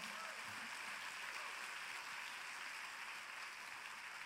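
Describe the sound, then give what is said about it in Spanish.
Sustained applause from a large crowd at a worship service, clapping for the Lord: a steady wash of many hands clapping at once with no single claps standing out, holding evenly loud throughout. “Dale un fuerte aplauso al Señor.”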